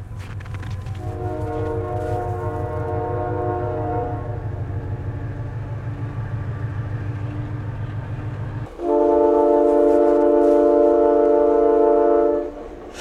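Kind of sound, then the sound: vehicle, train passing by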